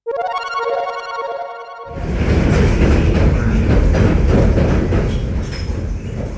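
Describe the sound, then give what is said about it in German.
A steady horn-like tone sounds briefly, then loud rattling rumble of a silver Chicago elevated train takes over, with rhythmic clickety-clack from the wheels over the rails, heard from on board during a ride from the Oak Park neighborhood. “Statt der gewohnten Wiener U-Bahn befinden wir uns gerade in der bekannten silbernen Hochbahn von Chicago.”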